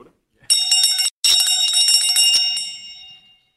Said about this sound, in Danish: 5 sekunder, så giver jeg ordet videre til øh, den vigtigste klokke i hele kongeriget.